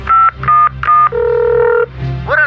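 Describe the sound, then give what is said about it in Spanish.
Phone dialing tones as a call is placed in the show Choco Salvaje: three quick beeps in a row, then a longer sustained tone and a short rising tone at the end, loud with no voices. “Márcale al Migra.”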